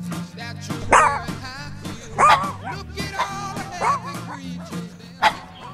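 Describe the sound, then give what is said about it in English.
Puppies bark and yip in a run of sharp, high-pitched bursts, about five of them spaced irregularly, fairly loud over a low, steady hum in the background. “Come on, let's hear you, puppies.”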